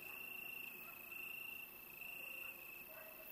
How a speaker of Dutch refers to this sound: maar de nacht verroert niet. Krekels.